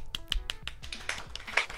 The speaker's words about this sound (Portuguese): E Carol Gataz, que agora está no Minas Tênis Clube. Uh! Palmas, palmas, palmas, palmas.